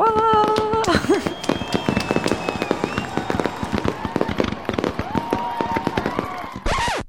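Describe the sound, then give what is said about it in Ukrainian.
A dense barrage of fireworks crackles and pops for several seconds, with whistling rockets rising and many sharp bangs overlapping, loud, with no talking. “Тут має бути таке, знаєш, якісь е, оплески, салюти.”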